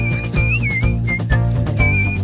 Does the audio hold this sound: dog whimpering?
no